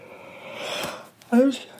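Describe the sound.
A drawn-out yawn: a long breathy inhale followed by a brief voiced, groaning exhale at the end.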